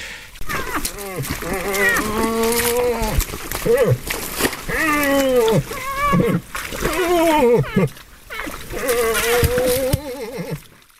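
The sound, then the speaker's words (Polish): A moose grunts and moans repeatedly in drawn-out, groaning calls while courting a female, fairly loud, with brief pauses between the low, throaty bursts. “Odgłosy, które słyszycie w tle, to nie żaden stękający staruszek, lecz łoś, starający się o względy samicy.”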